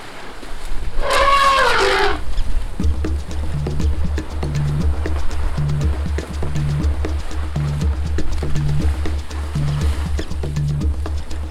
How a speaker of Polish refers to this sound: Pięć sztuk, w tym jedno mniejsze słoniątko. No ale głośno. Słonie wychodzą z wody i przeganiają bawoły. U. Tu rządzą słonie.